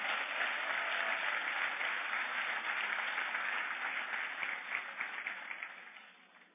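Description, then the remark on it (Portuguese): An audience applauds the Lord in a dense, sustained wash of clapping that holds steady for several seconds before gradually fading out at the end. No one speaks over it. “Pode aplaudir o Senhor.”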